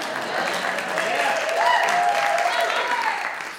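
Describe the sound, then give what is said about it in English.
An audience claps in steady, dense applause that swells and then fades over a few seconds, with faint voices and cheers mixed into the crowd noise. “I worked there as a firefighter but that was only for, yeah, you can clap about that.”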